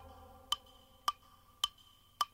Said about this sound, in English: there was no sound at all but the clock upon the wall.